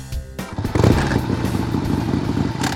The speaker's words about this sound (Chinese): 我拿起钥匙，发动我的小绵羊，准备骑车离开。